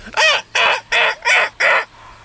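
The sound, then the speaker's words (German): A human voice imitating a cormorant's cry: five harsh, raspy croaking calls in an even rhythm, each about a third of a second long, loud and alone with no talking. “Und deshalb schreien Sie so.”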